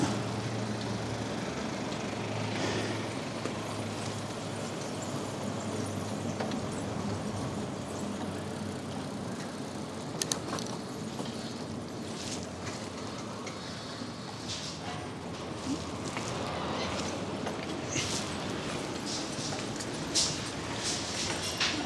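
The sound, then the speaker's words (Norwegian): A car's engine rumbles steadily alongside broad tire and road noise, approaching at a moderate level on a narrow road, with a few brief bumps and rustles near the middle and no voices. “Kommer en bil til her.”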